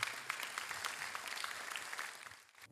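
A crowd claps in a steady round of applause, a dense wash of many overlapping hand claps that holds at an even level before tapering off at the end, given this morning to thank a guest for coming and joining them.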